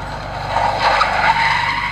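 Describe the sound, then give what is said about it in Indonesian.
An ambulance skids hard as it suddenly runs over something on the road, its tires letting out a sustained screech over a low engine rumble, loud, with no one speaking. “Kemudian mendadak mobil ambulan itu melindas sesuatu.”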